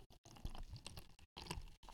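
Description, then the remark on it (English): Corona beer glugs and fizzes as it's poured into a blue Solo plastic cup, a soft splashing stream broken by a few brief pauses, with no one talking. “That's a, he's pouring a Corona into a blue solo cup.”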